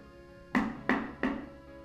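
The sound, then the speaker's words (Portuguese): Three firm knocks on a bedroom door, evenly spaced about a third of a second apart, each a sharp thud that rings briefly before fading, with no voices. “alguém bateu na porta do quarto.”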